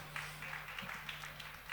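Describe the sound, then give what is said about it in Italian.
An audience applauds a band's drummer as he is introduced at a concert, a steady, dense patter of many hands clapping at a moderate-to-soft level, with a faint low electrical hum underneath. “Oh, facciamogli un applauso, grande Pietro.”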